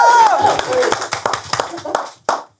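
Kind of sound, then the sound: crowd, audience clapping and cheering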